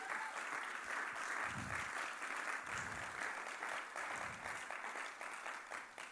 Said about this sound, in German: Also können wir unserer Band mal einen Applaus geben